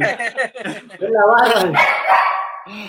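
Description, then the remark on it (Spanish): A dog lets out a few quick barks, then breaks into a long, wavering howl that rises and falls in pitch for a couple of seconds. “Yo, creo que si escuchamos bien está cantando.”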